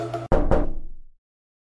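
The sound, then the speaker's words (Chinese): Two firm knocks on a hotel room door in quick succession, each a sharp, solid thud, followed by a brief resonant ring that fades out within a second. No voices. “以前常听说入住饭店时进房门都要先敲门，说声不好意思打扰了。”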